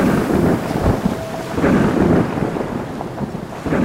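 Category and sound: nature, thunder sound effect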